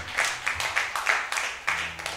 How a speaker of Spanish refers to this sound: Le doy un aplauso a ese buen ánimo.